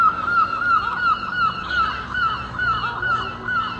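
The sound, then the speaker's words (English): A flock of seagulls at a harbour calls loudly and continuously, harsh overlapping squawks repeating in quick succession with no voices present. “And although I am looking forward to my own bed a little bit due to the lack of seagull cacophony around its perimeter.”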